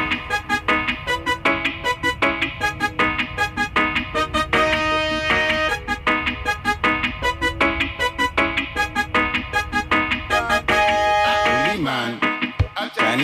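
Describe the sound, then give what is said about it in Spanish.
A demo music track, from an unlabeled demo recording marked track 1, plays loudly and continuously, with a steady rhythmic beat and sustained melodic notes, no voices, briefly dropping out near the end. “no puedo deciros que cortés porque también es una maqueta y pone track 1”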